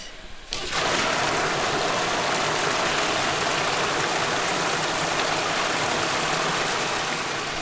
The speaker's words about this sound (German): Und mit dieser Flut werden die Schiffe durch die 14 Meter lange Wasserteststrecke ja gezogen oder geschoben.